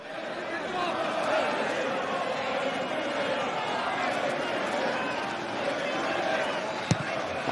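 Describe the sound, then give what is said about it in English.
A stadium crowd at Brentford, during Manchester United's 3-1 win, keeps up a loud, steady roar of voices for the whole stretch, reacting to the goalkeeper holding on to the ball and counting the seconds, never dropping off, with a single sharp knock cutting through near the end. “Um, what I want you to listen out for is is the crowd's reaction to him holding on to the ball.”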